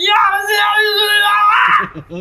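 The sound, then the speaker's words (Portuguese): A single loud, sustained human scream imitating the war cry a warrior made as he was dying, strained and wavering, lasting about two seconds before breaking off into a few rough gasping sounds. “Meu grito de guerra! O grito que ele fez quando ele tava morrendo.”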